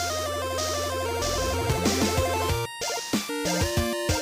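Bright, buzzy 8-bit style chiptune theme music plays loud over a steady bass line, with quick stepping melody notes, a brief drop near the end, then a busy run of notes.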